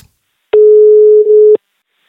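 One steady, mid-pitched ringback tone of an outgoing phone call, lasting about a second and starting and stopping with soft clicks. It sounds alone, with silence before and after and no talking.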